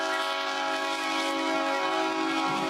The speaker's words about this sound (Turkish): Çok geçmeden trenin sesi duyuldu.